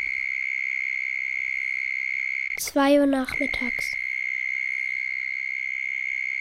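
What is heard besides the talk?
cicadas chirping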